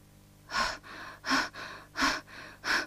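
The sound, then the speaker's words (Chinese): Heavy, breathless panting performed by a human voice for a frog in a children's story, nearly collapsing after winning a race against a snail: six quick, airy breaths in a steady rhythm, louder rasping gasps alternating with softer exhales, with no talking. “青蛙喘着粗气，好不容易才没有一头倒下。”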